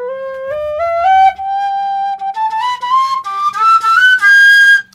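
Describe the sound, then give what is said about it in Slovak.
A thick, simple six-hole pipe in G plays alone, climbing a stepwise scale of breathy, bright notes that grow busier and more ornamented as they rise higher, loud and steady throughout; the lower scale is played on the six holes, the upper scale fingered as on a three-hole pipe. “Teraz tuto je v G, je to tiež šesdierovka.”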